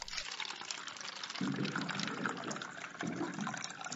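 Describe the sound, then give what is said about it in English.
Water streams steadily from a water cooler spout into a cup, fairly loud, with two deeper gurgling glugs partway through; no one speaks. “I'm always so thirsty after talking about time travel based movies. Good thing it's time for some water cooler facts.”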